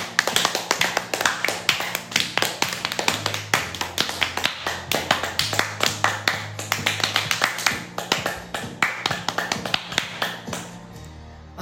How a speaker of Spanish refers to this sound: Dicen, dicen, dicen, dicen que cuando aplaudís, los nervios de las manos generan una gran electricidad en todo tu cuerpo. Así que empecemos este programa aplaudiendo. ¡Vamos!